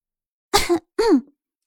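Two short, voiced coughs in quick succession, like an awkward throat-clearing "ahem," moderately loud and heard alone, with only a faint trace of sound afterward.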